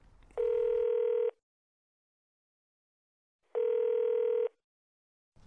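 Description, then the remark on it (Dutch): A telephone ringing tone sounds twice, each a steady, buzzy, mid-pitched beep lasting about a second, separated by a long silent pause. No one speaks. “Dus ik, ik ga jou bellen”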